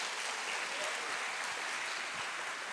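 An audience claps steadily to applaud the name of Jesus after a prayer. A dense wash of many hands forms continuous applause for a few seconds, with no voices standing out over it.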